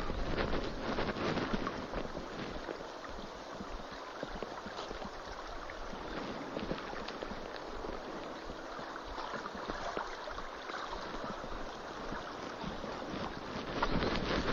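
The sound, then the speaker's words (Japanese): Steady trickling water runs continuously at the edge of a pond on a sunny early afternoon at New Year. It is a dense, even babble with no pauses and a slight breezy hiss underneath. No one speaks. “水の音っていいねなんか最近思いますよあのまあ水にも凶暴な一面があるので一口に水の音はいいねっていうのもあれですけどこのちょろちょろちょろちょろと、うん、池のほとりでね聞こえるこういう水の音とか小川のせせらぎみたいなのいいですよね、うん、癒し効果あるなって最近っと実感してますけど。”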